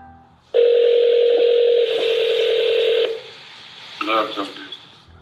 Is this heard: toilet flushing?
no